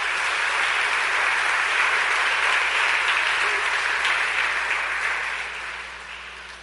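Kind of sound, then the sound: crowd, audience applauding loudly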